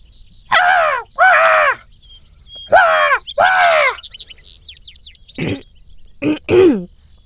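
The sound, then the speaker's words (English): A human voice mimics a spotted dove's call with two pairs of low, hooting coos followed by a few shorter rising notes. Faint bird chirps twitter in the background. “that right there, my friends, is the spotted dove call.”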